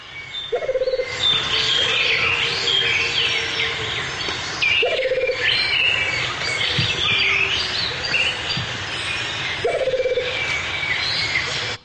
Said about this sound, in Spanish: Hay más de 10 especies de aves cantando junto con él, más de 15.